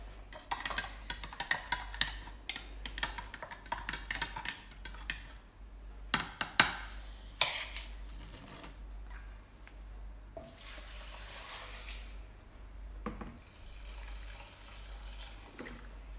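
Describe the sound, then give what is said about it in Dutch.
A stock cube is crumbled and stirred into water for a soup, before being added to the pan: rapid scratchy crackles and clicks for several seconds, then softer swishing and sloshing with occasional taps, no voices. “Ik maal de bouillon even met het water voordat ik het toevoeg aan de pan.”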